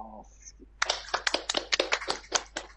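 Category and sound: crowd, clapping hands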